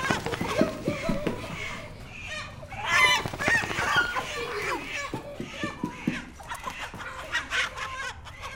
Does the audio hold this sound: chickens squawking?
yes